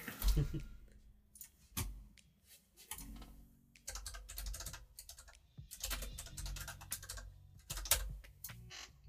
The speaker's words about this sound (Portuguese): Agora vou fazer a grande estrilha aqui a carregar no teclado.